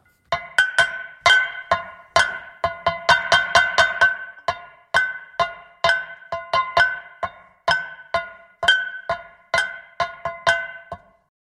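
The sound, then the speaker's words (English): Metal kitchen pots and pans are struck repeatedly with wooden spoons, producing a dense run of loud, ringing clanks in an uneven, improvised rhythm, with no voices. “To convey amateurness, I used pots and pans from the kitchen and spent the morning banging on them with wooden spoons, and this is how it sounds.”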